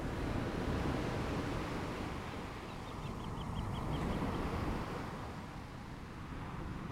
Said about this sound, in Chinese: 后来我才知道，海浪有着每分钟大约拍打十二下的频率，而这个频率恰好是一个沉睡着人的呼吸频率。